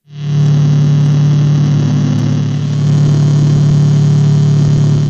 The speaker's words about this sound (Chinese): 其实听下来最大的特点就是说，他们的音乐中用了大量的噪音。那这些噪音是各种不同的效果而而融合在一起，从而产生的。例如说，使用这样的失真效果，